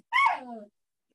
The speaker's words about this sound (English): excuse my dog